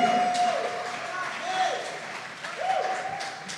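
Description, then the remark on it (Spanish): An audience applauds Jesus loudly and steadily at a Sunday gathering, a dense wash of clapping, with voices calling out and a thin whistle-like tone rising briefly above the crowd. “Dale un fuerte aplauso a Jesús que está en este lugar. Que se escuche bien fuerte.”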